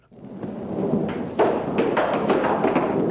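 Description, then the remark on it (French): Thunder from a storm rolls in a steady, heavy rumble that swells midway with a louder crack, followed by a series of sharp rattling bursts, loud, with no voices. “Un seigneur égaré, surpris par l'orage, demande l'hospitalité pour la nuit.”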